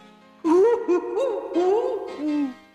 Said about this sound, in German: Heulte die Hexe im Backofen. Das klang so gruselig,